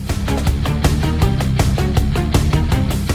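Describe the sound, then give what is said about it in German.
Loud, driving video game final boss theme music with strings layered over steady, pounding percussion hits, dense and energetic throughout with no one talking. “Ich liebe die Streicher hier.”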